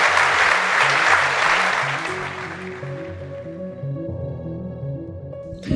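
A large live audience in the room applauds loudly. The dense clapping fades over a few seconds as a sustained musical tone and soft chords rise underneath and take over.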